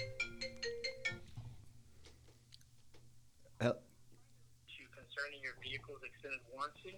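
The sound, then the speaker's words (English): A phone ringtone for an incoming call from a fake number plays a quick, bright melodic chime for about a second, followed by a lull with a sharp click, and then a person begins speaking. “I got a phone call coming in uh, from it. a from a fake number.”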